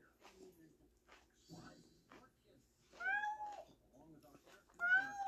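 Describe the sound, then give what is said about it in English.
A cat meows twice at a closed door, loud, each call a drawn-out, rising-then-falling wail, after a few seconds of softer, low rustling and murmuring sounds. “Luna will do that at my door all day, but she'll also jump up and paw at it.”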